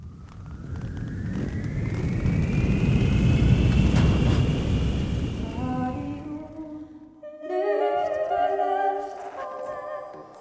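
A soundscape jingle built from Jon Gjerde's recorded hang glider loops: a loud, rushing wind-like rumble with a smooth swooping drone, then layered bright tones ringing out in pulsing bursts. No one speaks.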